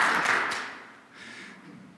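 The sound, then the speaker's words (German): An audience claps wildly on cue as a demonstration of cheering, a dense, unruly burst of many overlapping hands. It thins briefly midway, then swells again without any steady rhythm. No one speaks. “Wenn ich die rechte Hand hebe, dann klatscht ihr alle mal wild drauf los, okay?”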